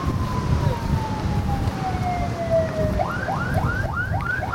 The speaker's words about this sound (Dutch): Op het ogenblik eh, sta ik hier aan de zee. Je kan misschien ook de ambulances horen op de achtergrond.